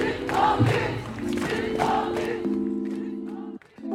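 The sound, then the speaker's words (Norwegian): A crowd of at least 100 demonstrators, many with prams, stands packed outside the Norwegian parliament, the Storting, shouting a chant in unison against the closure of the ABC birth clinic at Ullevål hospital; loud rhythmic bursts of voices and sustained tones carry through before a brief drop near the end. “Utenfor Stortinget står det minst 100 demonstranter tett sammen.”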